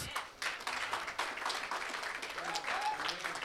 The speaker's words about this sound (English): Somebody ought to get the Lord a hand clap of praise.